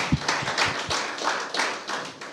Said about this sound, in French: Oh, clap for David. Clap ah, for David. Applaudissez wow, pour David. Clap for David.